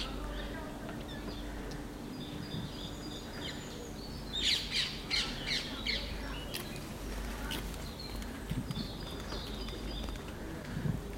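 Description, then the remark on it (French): A calm outdoor atmosphere in the Buttes-Chaumont park, Paris, during lockdown on a Saturday late afternoon near 5 pm, with a soft, steady low rumble of the city in the background, while birds chirp and tweet in short bursts, busiest midway through. “Je suis au gris des buts de Chaumont et euh, voilà les bruits de la ville.”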